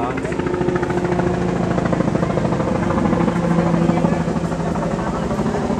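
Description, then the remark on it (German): A helicopter passes overhead in a sky full of helicopters, its rotor chopping in a fast, steady throb over a loud engine drone that stays constant throughout. “Der Himmel. Voll mit Hubschraubern.”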